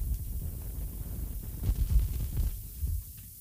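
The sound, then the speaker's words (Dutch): A low, rumbling interference hum on a radio broadcast drones steadily throughout, with an uneven throbbing pulse swelling briefly in the middle before easing off; no one speaks. “Een klein beetje storing.”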